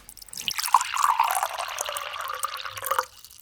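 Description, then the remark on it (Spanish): Water is poured steadily into a glass for about two and a half seconds, a bright splashing that rises slightly in pitch as the glass fills, then stops. “¿Tomamos un poquito más de agua?”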